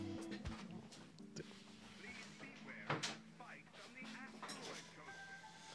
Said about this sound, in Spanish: Puerta cerrada, ¿eh?